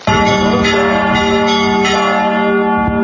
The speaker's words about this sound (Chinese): 教堂钟声响起，在约旦河西岸的伯利恒却不见过节气氛。